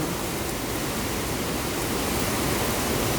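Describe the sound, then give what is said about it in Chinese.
Heavy rain from a typhoon's outer circulation, now weakened to a tropical depression, pours down in a steady, dense roar, with water dripping and pattering from many eaves blended into the constant hiss, and wind mixed in. The sound stays even and loud throughout, with no voices. “因为我这里有很多屋屋檐呢，可是你可以感到那个雨啊，蛮凶猛的，然后滴滴答答的声音也比较大声。”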